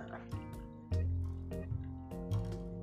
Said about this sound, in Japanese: あとは、こう、中心を狙ってドリップします。あんまりね、回したり、周りにこう、お湯を入れるってことは、この式ではやんなくていいです。